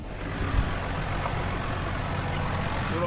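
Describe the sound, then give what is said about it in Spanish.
A Massey Ferguson tractor with an air-conditioned cab runs steadily, a continuous low rumble with a faint mechanical whine on top, loud and unbroken for the whole stretch with no voices. “Una vez solucionado el percance, me subí al tractor con Tommy.”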